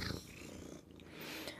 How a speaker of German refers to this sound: Man hört wahrscheinlich nur noch dich schnurren